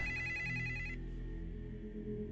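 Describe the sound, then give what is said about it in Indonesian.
The landline telephone in an apartment unit rings late at night with a bright, trilling electronic bell for about a second, then stops, leaving a steady low hum. “Tapi nggak lama waktu gue lagi baca, telepon di unit apartemen gue bunyi. Jam segini, telepon di unit bunyi.”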